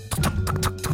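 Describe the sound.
A voice imitates galloping horse hooves with quick clip-clop clicks in a rapid, uneven rhythm, fairly loud, lasting about a second with a low hum underneath.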